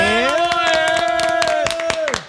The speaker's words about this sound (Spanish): Un aplauso para él, ¡Vamos!